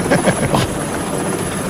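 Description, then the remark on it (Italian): Loud, steady rotor noise of a Bell 525 helicopter headed for Linate fills the short stretch, a dense whooshing roar with a rapid throbbing pulse, continuous with no voices over it. “sono in elicottero, mi stavo sorvolando”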